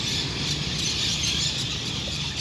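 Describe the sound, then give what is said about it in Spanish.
A dense, continuous wall of high-pitched chirping and chattering from thousands of parakeets (piuichos) and swallows settling each afternoon in the leafy trees around the Parque de los Loros in the Amazon city of Leticia, steady and fairly loud throughout, with no single call standing out. “específicamente en el Parque de los Loros, un parque emblemático de la ciudad de Leticia, pues aquí cada tarde llegan miles de estas aves como piuichos y golondrinas a apoderarse de los frondosos árboles que se encuentran rodeando el lugar.”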